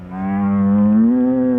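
An ox gives a single long, loud moo, a steady low droning call that lasts over a second and rises slightly in pitch toward the end, with no talking over it.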